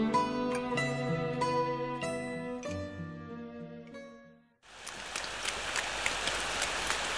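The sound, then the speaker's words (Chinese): A short melodic passage of plucked, ringing notes fades out, then steady heavy rain takes over, a dense hiss with scattered patters for the last few seconds. “安安姐姐回头一看是阿良姐妹，便跟她们一起躲进屋檐避雨。”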